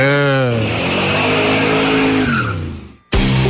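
A loud car engine revs hard for the Band Motores segment, its pitch sweeping and climbing with a rough roar and a hint of tire squeal, cutting out briefly near the end before roaring back.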